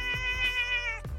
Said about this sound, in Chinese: 家里面有一只猫猫，有一只猫猫，cutest，让它叫一下， 啊， 让它叫一下， 叫叫妈妈 叫 叫， 叫，OK。